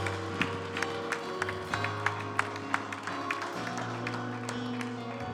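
An audience applauds with a steady run of sharp hand claps over a sustained low musical drone, the clapping loose but roughly rhythmic for several seconds.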